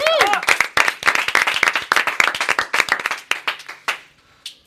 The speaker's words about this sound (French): Merci d'avoir de faire un tonnerre d'applaudissements